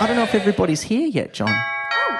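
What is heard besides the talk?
doorbell ringing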